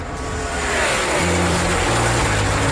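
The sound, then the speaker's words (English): Loud, continuous engine roar with stepped changes in pitch as the motors rev up and shift, sounding like racing cars accelerating, with no voices. “Start your engines.”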